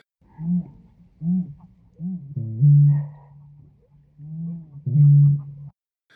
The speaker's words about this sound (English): And then the song is really cool. It's a low uh, mist horn like booming sound.